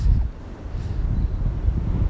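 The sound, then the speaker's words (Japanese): Steady low rumbling wind buffets the microphone outdoors in a park during cherry blossom viewing, a continuous blustery roar with gentle surges and no voices. “風が気持ちいいですね”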